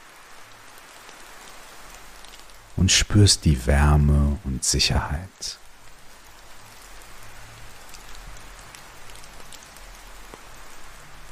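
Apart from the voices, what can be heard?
distant rain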